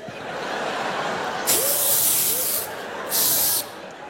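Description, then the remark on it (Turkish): Two loud bursts of aerosol spray hiss, the first longer, the second short, bright and airy, as cream brought by the cabin chief on a plane is sprayed from a can everywhere, over a steady background hum. “her yere sıkılıyor.”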